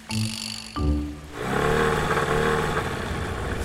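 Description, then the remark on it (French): A motorboat engine starts up and revs into a loud, steady roar, preceded by a brief tonal hum, with no one talking, as the boat with children aboard departs through a channel for a crossing of about 20 minutes to Île Saint-Honorat. “Bon, voilà le bateau. Allez, tous à bord, hein.”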